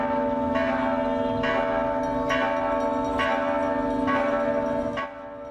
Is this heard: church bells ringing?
yes